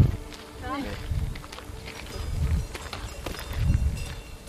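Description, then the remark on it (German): Steady footsteps crunch along a hiking trail in the Austrian mountains, surrounded by herbs, while cowbells clank and ring intermittently in the background, with a faint buzzing of insects around. “Kuhglocken begleiten unsere festen Schritte auf dem Wanderweg.”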